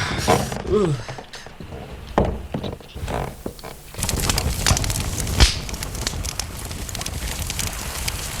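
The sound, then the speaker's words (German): Rustling crinkles and sharp little clicks like paper being crumpled, followed by a steady, dense crackling hiss as a fireplace is lit with wood and paper. A brief vocal sound occurs near the start. “Ich, ich zünde den Kamin an. Ja es sind Holz und Papier da.”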